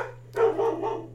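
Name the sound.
dog barking outside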